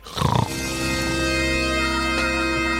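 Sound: voice imitating snoring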